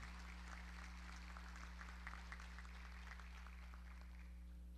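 A crowd at a federation event applauds the president of the recycling cooperative of Maimón: a dense, steady patter of many hands clapping for several seconds, fairly faint, over a constant low electrical hum, with no one speaking.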